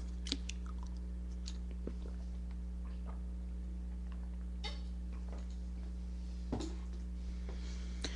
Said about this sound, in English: i'm just going to take a sip of water